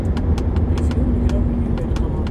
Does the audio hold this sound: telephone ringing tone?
no